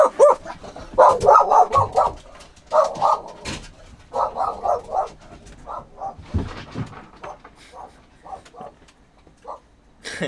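A dog, Chevy, barks excitedly at pelicans in quick bursts of sharp, yappy barks, pausing between volleys, with a few softer whimpering yips toward the end.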